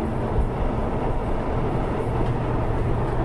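A runaway train rumbles steadily past coniferous forest, a dense low roar with a faint rhythmic rattle running through it, constant in loudness with no voices.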